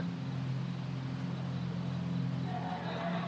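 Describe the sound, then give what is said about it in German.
A steady, low engine drone of a car driving around night streets, with a constant rumble and faint road hiss that holds at an even level throughout, no voices. “Einige steigen in Autos und fahren umher, andere laufen ziellos durch die Straßen der Nacht.”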